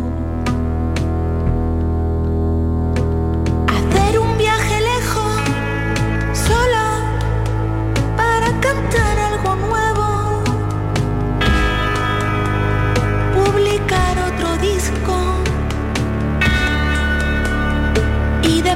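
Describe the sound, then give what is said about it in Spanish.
A song plays at full volume throughout, with a steady beat, sustained bass and a bright layered melody running continuously from start to finish. “Bueno, hemos empezado con una canción que tiene mucho que ver con los propósitos que no hemos conseguido durante el año”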